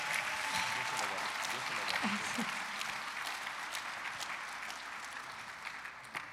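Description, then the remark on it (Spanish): An audience applauds Jesus Christ steadily, a dense wash of many hands clapping at an even loudness that tapers slightly toward the end, with a few sharper claps standing out. “Amén, dele fuerte ese aplauso a Jesucristo.”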